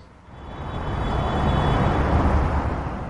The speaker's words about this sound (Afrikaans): Karre ry teen spoed op die snelweg wat Johannesburg omring. Baie oorskry die spoedbeperking van 100 km per uur.